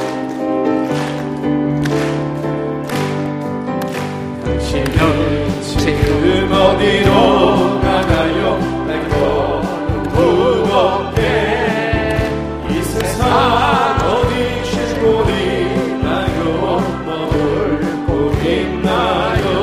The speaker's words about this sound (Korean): 우리 힘차게 기쁜 마음으로 우리 박수하시면서 부르시겠습니다.